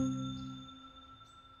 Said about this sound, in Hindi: पीछे से साइकिल की घंटी की आवाज़ आती है